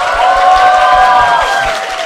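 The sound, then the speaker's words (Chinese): A crowd cheers and applauds loudly and continuously for about two seconds, with high whooping voices over steady clapping and no speech. “怎么感觉我们五个的呼声像是 WiFi 信号一样？”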